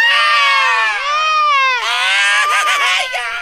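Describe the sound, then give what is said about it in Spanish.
Loud, high-pitched shrieking voices scream wildly and without a break for a few seconds, the pitch wavering and swooping up and down. “A ver, grites, Como locas, güey.”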